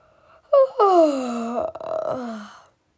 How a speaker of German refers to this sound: gähnte er.